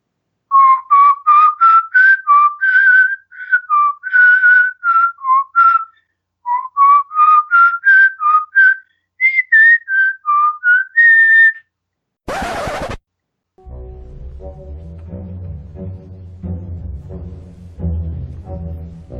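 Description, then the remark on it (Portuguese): A person whistles the melody In the Hall of the Mountain King in lively, short, bouncy staccato notes that climb and fall in repeated phrases, followed by a sharp burst of noise and then instrumental music. “Eu vou assoviar ela agora, tá? Para os nossos ouvintes.”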